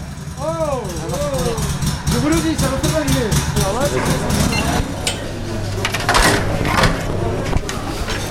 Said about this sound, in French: Il est prof d'agroéquipement et là, il est en train d'expliquer à une classe de seconde comment diriger la tondeuse autoportée.